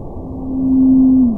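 An Antarctic blue whale's song: a single long, low tonal note that swells in loudness, holds steady, then slides slightly downward at the end over a soft background rumble.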